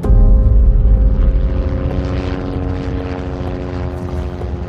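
A loud helicopter drones with a steady, layered rotor and engine hum, easing slightly in volume as it lands at Fürstenfeldbruck, the first helicopter to land, carrying the crisis staff. No voices are heard.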